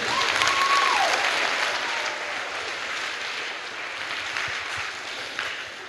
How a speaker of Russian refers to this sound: Если хочешь дать Господу аплодисменты, дай Ему тогда аплодисмент.